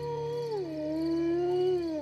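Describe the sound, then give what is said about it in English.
A wolf howls in the distance in one long, unbroken call. Its pitch slides downward early on, then holds steady and wavers slightly. The sound is clear and sustained, with no voices. “In the distance, you hear a wolf howl its long call to its mates.”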